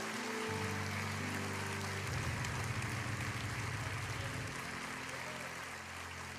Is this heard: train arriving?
no